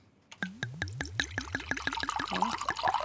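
A rapid run of bubbly gurgles as coolant circulates through the cooling elements at the back of a refrigerator, each glug quickly following the last and growing busier and more tangled, with no voices.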